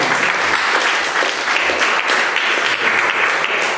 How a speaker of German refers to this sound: Sollte man vielleicht auch einen kleinen Applaus haben.